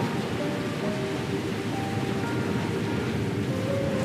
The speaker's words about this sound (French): Je n'aurais pas pu trouver meilleur événement pour m'adresser à toi. Le vent, la tempête, la sommation de notre propre précarité.